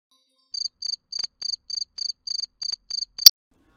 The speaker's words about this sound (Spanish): es el timbre de un grillo.